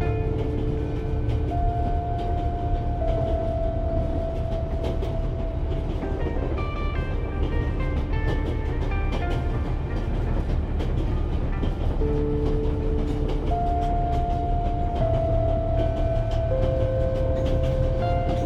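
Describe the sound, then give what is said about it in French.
A moving train produces a steady, rhythmic rumble with a continuous low hum and faint tonal whines drifting above it, at an even, moderate loudness throughout. “le bruit de votre respiration se mêle au chuchotement régulier du train qui enveloppe l'espace autour de vous.”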